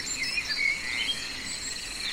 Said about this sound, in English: insects producing sound.